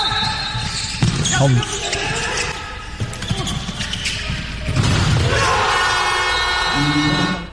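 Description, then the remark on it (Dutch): A ball thuds on an indoor court amid a noisy crowd during a Netherlands handball qualification match. A loud, sustained buzzer then blares as Limburg player Kai Smits scores at 26-26 on the final buzzer, and the crowd erupts into a roaring cheer that carries to the end. “Dat is wat je noemt een buzzerbeater.”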